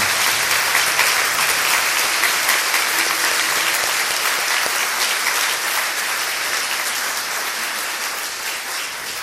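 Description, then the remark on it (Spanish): Loud, sustained applause from a community for the Holy Mother, a dense wash of clapping that holds steady for about nine seconds before easing slightly toward the end, with no talking over it. “Un abrazo para todos y bueno, con la esperanza de que nuestra comunidad siga creciendo en el amor a Dios a través de nuestra Madre Santísima a quien le damos un fuerte aplauso, les parece de lo más profundo del corazón.”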